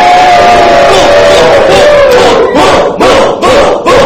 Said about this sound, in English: The roar of the crowd is deafening.